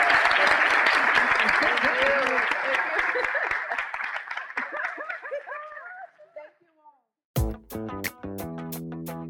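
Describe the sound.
An audience at a professional development seminar applauds loudly to thank the speakers, dense clapping with some cheering voices, tapering off over about six seconds before a short pause and music begins.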